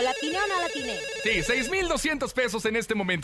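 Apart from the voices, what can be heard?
telephone ringing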